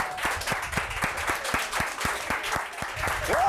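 A single person does a slow clap that quickly speeds into double time, about four sharp claps per second, over a noisy crowd murmur.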